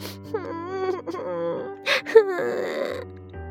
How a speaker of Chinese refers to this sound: 她想着想着，哭了起来。